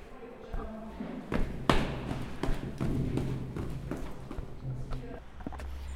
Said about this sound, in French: Super, première nouvelle, l'ascenseur ne marche pas donc je vais devoir euh, courir dans les escaliers. C'est parti.